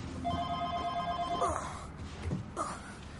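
A telephone rings once in a bright, steady electronic tone lasting just over a second, followed by soft rustling and a couple of dull thumps of movement.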